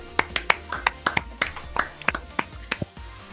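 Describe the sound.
Brief, sparse applause from a small group: a dozen or so sharp, crisp claps in an uneven rhythm over a few seconds, fairly close, with faint voices murmuring underneath.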